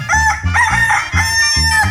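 rooster crowing

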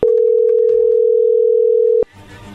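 telephone being dialed

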